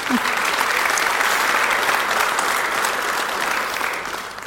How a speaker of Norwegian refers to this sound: Takk. En applaus til panelet.